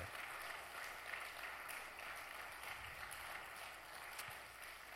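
An audience applauds steadily throughout, a dense, crackling wash of many hands clapping at once with no pauses, fairly soft in level and with no voices standing out.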